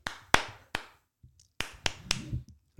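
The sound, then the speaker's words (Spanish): Six or so sharp hand claps land at uneven intervals, crisp and fairly loud, with quiet gaps between them and a low rumbling murmur toward the end. “es que ni tres ni dos palmadas es un aplauso.”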